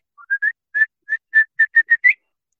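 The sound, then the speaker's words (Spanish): A person whistles an imitation of a grallaria's song, a bird called chiflaperros because its song sounds like whistling to call a dog: about ten short, bright notes, a few soft, spaced ones at first, then a quicker, evenly paced run ending on a rising note, clear. “entonces el canto de ellas es como si estuvieras llamando a un perro, ¿no es cierto?”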